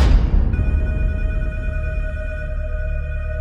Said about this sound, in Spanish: Apenas me estaba girando para bajar los escalones, cuando extrañamente todos los teléfonos de las oficinas timbraron al mismo tiempo.